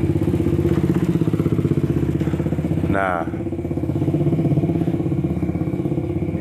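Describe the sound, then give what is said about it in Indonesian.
A motorcycle engine rumbles steadily throughout, with street traffic noise around it and a brief voice cutting in midway, recorded while out on the road. “sorry ada iklan karena gue di jalan boy podcast pertama gue hancur lah di jalan”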